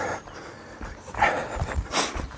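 Several heavy, breathy pants in quick succession, close and fairly loud, with a harsh rasp on the exhales and no speech.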